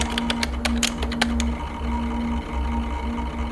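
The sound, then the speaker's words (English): A quick burst of clicky computer-keyboard typing while logging into a computer, about a dozen keystrokes over a second and a half, then it stops, leaving only a steady low electronic hum. “Let me just log into this computer so I can get the components out without damaging them.”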